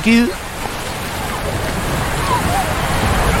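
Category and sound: nature, ocean waves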